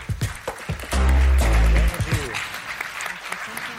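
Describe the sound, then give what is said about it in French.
An audience applauds loudly and steadily to welcome performers for the last part of an event, dense clapping filling the whole few seconds, with a brief sustained low tone or shout rising over it near the start. “On appuie très fort, s'il vous plaît.”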